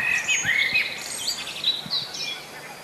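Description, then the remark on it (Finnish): A spring dawn bird chorus, with a great tit and a redwing among the singers: several birds chirp, trill and whistle at once in a dense, high-pitched, continuous tangle of song, with no voices present. “ainakin yksi kevätaamu kannattaa valvoa lintujen konserttia kuunnellen”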